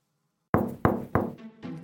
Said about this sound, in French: Et maintenant Vas-y, frappe à la porte T'es sûr Mais vas-y, je te dis Bon, d'accord